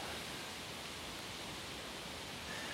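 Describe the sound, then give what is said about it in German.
A steady, soft rushing hiss of wind moving through tree leaves, continuous and even for the whole stretch, with no voices and no distinct individual sounds breaking through. “Jetzt, jetzt müssen wir eigentlich mal kurz stehen bleiben, damit ihr halt das Rauschen in den Bäumen hört.”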